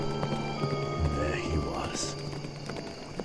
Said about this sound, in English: I was on my way back into the hollow and suddenly I hear a horse galloping on the road behind me. I looked back.